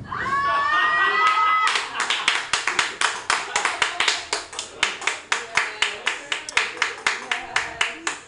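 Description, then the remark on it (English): A comedy audience bursts into applause for a stand-up comedian after her closing joke, following a few high whoops or whistles, then settles into loud, steady, rhythmic clapping that continues throughout. “Applause break for Tess Berry.”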